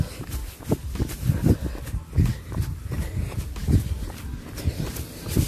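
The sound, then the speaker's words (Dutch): Steady, rapid footfalls thud in an even running rhythm, a continuous series of soft impacts with no voices, from a person who has been running for more than four minutes. “En we zijn al meer dan vier minuten aan het rennen.”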